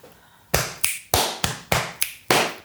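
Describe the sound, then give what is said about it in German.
Seven crisp body percussion hits, finger snaps mixed with slaps or taps, played in a quick, slightly uneven rhythm as a kind of body percussion rap, with no voices. “Und äh, ich habe mir überlegt, ich mache eine Art Body Percussion Rap,”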